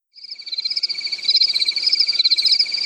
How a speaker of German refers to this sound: Ihr könnt jetzt gerne zirpende Grillen einfügen.